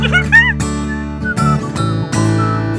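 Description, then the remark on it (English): A person whistles a quick, wavering melody at the start, clear, over a bright musical backing that then continues with loud, sustained chords. “oh, that's nice whistling, yeah.”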